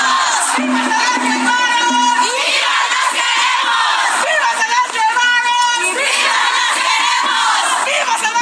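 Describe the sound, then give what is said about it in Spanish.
A crowd of mixed collectives protesting peacefully in front of the municipal government building in Guanajuato shouts together in loud, rhythmic bursts, voices rising and falling in repeated chant-like waves with high, strained cries throughout. “En Guanajuato hubo colectivos mixtos que protestaron de manera pacífica frente a la presidencia municipal.”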